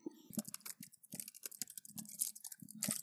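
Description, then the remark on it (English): Rapid, uneven clacking of keys on a laptop keyboard, a dense run of short taps and clicks at a modest volume, with no voices. “I could be, I could use the keyboard on the laptop, but like seriously, like hold on.”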